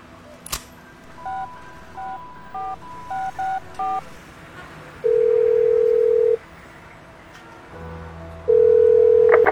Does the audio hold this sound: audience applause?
no